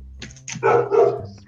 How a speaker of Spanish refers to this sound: escucha a mi perro, perdón.